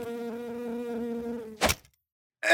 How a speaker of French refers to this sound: Il y a une petite mouche à fruits en studio, justement.